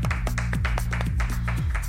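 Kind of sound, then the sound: crowd, short applause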